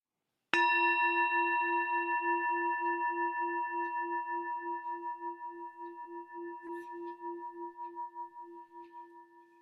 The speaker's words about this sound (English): As we listen to the chime, let us remember our connection to each other and the world around us.